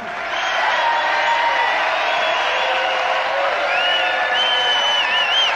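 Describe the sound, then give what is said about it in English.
A large theater crowd at the Emery Theater in downtown Cincinnati, Ohio, applauds steadily and loudly for a band's 2,441st performance, with whoops and cheers rising above the sustained clapping throughout, enveloping, with no one speaking. “this incredible crowd right here in the beautiful downtown Emery Theater here in Cincinnati, Ohio”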